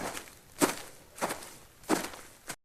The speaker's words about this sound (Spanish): Como se dan cuenta, los pasos ahora están a la izquierda. ¿Escuchan?